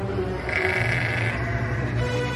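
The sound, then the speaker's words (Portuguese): A ram or goat bleats in one long, loud, wavering cry that holds steady for a couple of seconds, with no talking over it, as a furious goat throws a ram to the ground and tramples it with its hooves. “O bode jogou o carneiro no chão e o pisou com as patas.”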